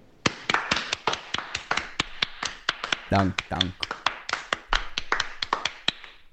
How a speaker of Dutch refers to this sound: Applaus voor jou.